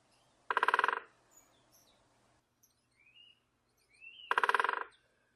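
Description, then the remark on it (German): A woodpecker drums on a tree in two quick, loud bursts of rapid knocks a few seconds apart, with faint birdsong chirping in the quiet gap between them. “wenn der Specht nämlich an den Baum hämmert.”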